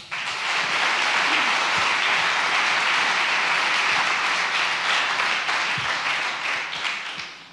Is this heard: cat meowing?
no